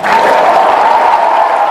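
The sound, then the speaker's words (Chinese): An audience bursts into steady, dense applause at the speaker's call to clap, many hands clapping at once in a loud, continuous wash of sound that holds level for the whole stretch. “这个也是破框，拍手吧。”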